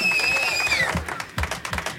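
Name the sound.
hand clapping applause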